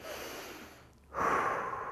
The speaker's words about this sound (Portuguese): Uma coisa que eu faço comigo é o tempo todo, quando eu percebo que eu estou ficando ansioso ou que eu estou nessa síndrome, eu começo a pensar na minha respiração. E aí, nesse momento, é que eu começo a respirar fundo.